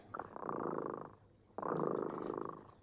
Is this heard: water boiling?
no